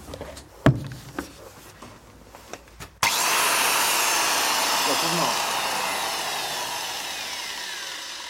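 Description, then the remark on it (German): An angle grinder cutting through a microphone whines loudly and steadily after a few sharp knocks and clatters, its harsh, bright hiss holding for several seconds and fading only slightly. “Zersägen eines Mikrofons mit einer Flex.”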